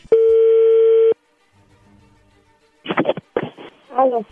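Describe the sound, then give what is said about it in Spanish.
A telephone rings through on the line: one steady, buzzing electronic tone lasting about a second, then a quiet pause before someone starts talking. “A ver, ahí entró la llamada.”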